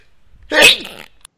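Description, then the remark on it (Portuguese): A single loud, uncovered sneeze bursts out suddenly with a sharp airy blast that trails off quickly, standing alone without any talking around it. “Caraca, não deu tempo dessa vez de tampar o espirro, desculpa.”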